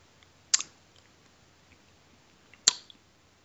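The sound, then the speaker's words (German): Someone crunches a peanut: two sharp, crackly bites about two seconds apart, each with a brief rustling tail, over an otherwise quiet background with no talking. “Am Schmatzen ähm, würde ich ähm, sagen, zweiteres. Weder noch, weil ich esse eine Erdnuss und Erdnüsse sind botanisch gesehen keine Nüsse.”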